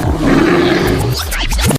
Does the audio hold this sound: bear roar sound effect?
yes